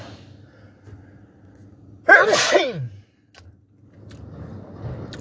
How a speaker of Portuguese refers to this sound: Esse foi um espirro.